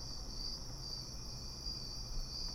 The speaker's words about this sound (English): A mosquito, a mosquito got in here somehow. See?